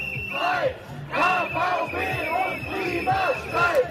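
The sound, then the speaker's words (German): A crowd of protesters at a KVB (Cologne transport company) strike and climate strike rally in Cologne (Köln), Germany, chanting the slogan 'One Struggle, One Fight, KVB und Klimastreik' in unison, loud rhythmic repeated phrases rising and falling in pitch, with a steady crowd roar underneath. “Ja, in Köln hat sich das heute so angehört.”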